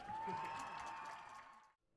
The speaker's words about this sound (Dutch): Dus ook een groot applaus voor jullie.